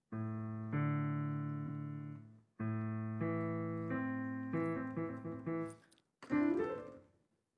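A simple piano melody plays slowly in long, sustained, evenly loud notes, pauses briefly, then moves through quicker notes before a short, bright flourish at the end.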